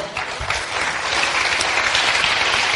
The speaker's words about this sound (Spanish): Fuerte el aplauso.